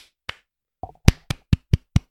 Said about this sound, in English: And you know what? Clap your hands.